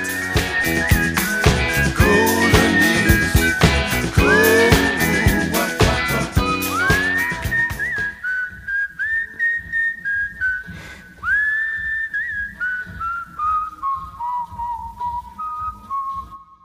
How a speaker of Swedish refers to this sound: Man brukar säga att om man kan sjunga rent så kan man också vissla rent. Eh, och det är han ju... om det är nu han som visslar vet jag inte, men det här är bara perfekt.